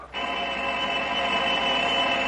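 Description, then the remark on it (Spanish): A telephone rings with a steady, continuous electronic tone that starts abruptly and holds unbroken for about two seconds, loud, with no voices. “Suena el teléfono.”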